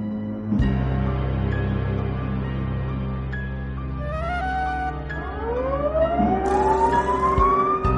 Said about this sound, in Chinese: 听到基地内部的警报声，附近的守卫立马冲入里面，将行走的神秘人干掉。